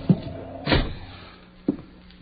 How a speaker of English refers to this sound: Kick the door shut.